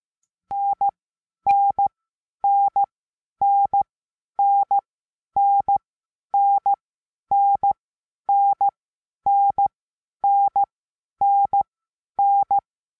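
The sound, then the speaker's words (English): A steady, clear Morse code tone keys out the letter N, dah-dit, over and over, about thirteen times at an even, brisk pace, with no voices and short silences between repeats. “this is where you can kind of go and to help learn cw or really you know it's morse code using the mode cw uh, um, so let's hear what the character n sounds like”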